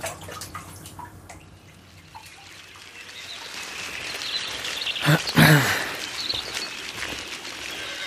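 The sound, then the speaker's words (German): Water sloshes and trickles in a bathtub, with scattered drips early on, then a louder splash about two-thirds through before the sloshing settles. No one speaks. “Nein, natürlich habe ich nichts an in der Badewanne.”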